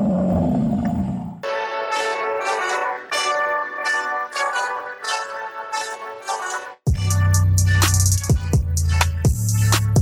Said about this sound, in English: Here comes the roar.